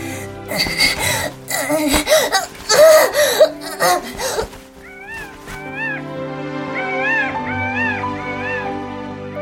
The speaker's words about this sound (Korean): 공작 수컷이 암컷과 새끼를 부르는 그 끄억끄억 빡빡 소리가 교성으로 터져 나왔던 것이었다.